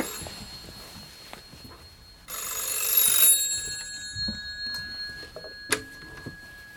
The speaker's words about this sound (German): Telefon. Gehen Sie ruhig an den Apparat. Es kann Ihnen nichts geschehen.